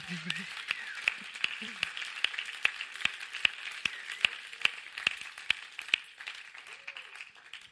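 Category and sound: crowd, audience applause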